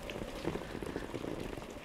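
Steady rain falls continuously, a dense patter of drops striking a surface at an even, moderate loudness with no voices present.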